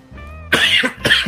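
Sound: coughing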